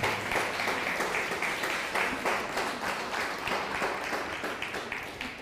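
Steady audience applause, many hands clapping in a dense, even patter that stays loud throughout, with faint voices mixed in beneath it.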